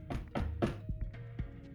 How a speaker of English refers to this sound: So you head upstairs and head to Foresight's room. Yep. And uh, once again, knock, knock, knock.